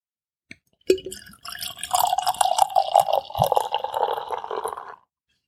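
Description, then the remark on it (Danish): An 11.5% barley wine being poured into a glass, starting with a small clink and then a steady gurgling pour lasting about four seconds before stopping. No voices. “Og mens jeg hælder op, jeg …, jeg snakker lige hen over det”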